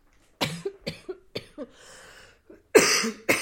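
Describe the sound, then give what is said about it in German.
A run of short, sharp coughs coming in quick bursts with a raspy, breathy stretch in the middle, then two harder coughs at the end. “hustete kurz.”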